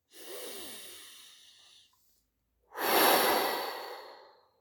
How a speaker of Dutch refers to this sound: Iets wat we altijd bij ons hebben en altijd kunnen toepassen. Jouw ademhaling.